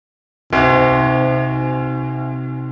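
A single loud church bell strikes after a moment of silence, its rich, layered tones ringing out and slowly decaying, with no voices present.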